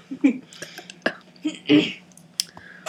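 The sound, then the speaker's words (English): A short, throaty burp comes out near the middle after someone hits the person on the back, set among a few sharp taps and small mouth noises, with no clear talking. “Oh god, I gotta burp. Get it out. she literally hit my back and it came out.”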